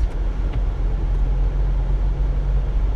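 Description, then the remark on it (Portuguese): Steady low engine rumble and road noise from inside a car moving along the main avenue in Felgueiras at 10:22 at night, a constant deep hum with faint tire roar and no voices. “Yeah, estou agora aqui a circular na, na avenida principal do, aqui em Felgueiras.”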